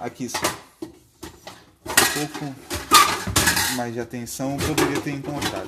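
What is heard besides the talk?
pots and pans clattering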